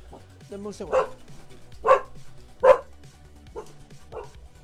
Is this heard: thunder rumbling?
no